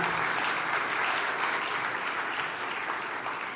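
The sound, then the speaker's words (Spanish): An audience applauds steadily, a dense, even wash of many hands clapping that holds at a strong level throughout, easing slightly near the end, with no voices standing out. “Des un aplauso, alientes.”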